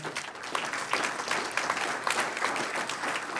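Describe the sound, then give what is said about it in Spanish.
An audience applauds the Lord together, a dense, steady patter of many hands clapping, sustained for a few seconds with no voices standing out above it. “Un aplauso al Señor.”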